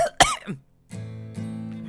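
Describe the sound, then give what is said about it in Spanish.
A single loud, forced cough bursts into the microphone, deliberately staged rather than real, followed by a steady, droning voiced hum. “Estoy clarificando porque toses encima del micrófono, chamo.”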